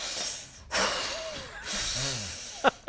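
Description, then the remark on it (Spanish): Someone imitates a child's deep breathing-exercise exhales: long, breathy rushes of air, two or three in a row, with faint voiced murmurs and a couple of sharp clicks at the end. “Pues bueno, a él le funcionan los ejercicios de respiración.”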